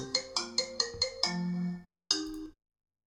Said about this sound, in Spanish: Es un simple mix del sonido del iPhone. Para quien lo quiera escuchar, lo dejo un poco. Bueno, es un mix de tres minutos que en su momento utilicé como ringtone.